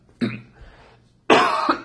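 Two harsh, close coughs: a short one, a brief raspy breath, then a longer, louder burst trailing into another quick cough, like the start of a coughing fit.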